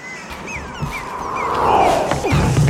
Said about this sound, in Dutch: De zee. Oh, de zee. Mijn borstkas stroomt vol met vreugde. Het woeste deinen. Het wilde kletteren. En de wind. De wind blaast al mijn veren schoon.